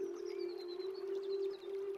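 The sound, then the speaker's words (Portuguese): A cicada drones steadily and unbroken in the background throughout, a loud, even buzz with faint high chirps flickering above it and no voices present. “Você percebe que lá no fundo você consegue escutar aquele barulho característico da cigarra.”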